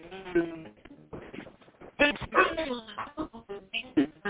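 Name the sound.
phone connection breaking up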